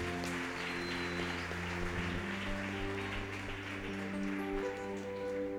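A crowd claps continuously in a dense, steady patter of many hands, applauding a performer who played Jonah, with a low steady hum underneath and no one speaking.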